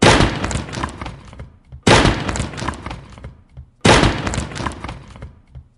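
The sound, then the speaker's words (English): Three loud, heavy slams on DJ turntables by DJ Brysky, evenly spaced about two seconds apart, each a sharp crashing thump that trails off into a rumbling decay, with no talking. “You can hear DJ Brysky slamming his turntables right now.”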